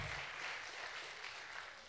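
A crowd claps steadily as a guest comes up to the stage, a dense, continuous patter of many hands at an even loudness throughout, with no voices standing out above it.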